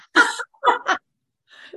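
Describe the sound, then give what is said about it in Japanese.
Someone makes a few breathy, drawn-out vocal bursts imitating a yawn, followed after a brief pause by a fainter trailing exhale. “なんかこういうの。あくびをする。”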